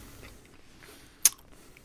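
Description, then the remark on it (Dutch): A single crisp bite into a cannabis brownie dessert with an Oreo cookie base and white chocolate mascarpone filling, a sharp snap, with faint low mouth sounds of chewing around it and no talking. “Ik eet nooit wiet.”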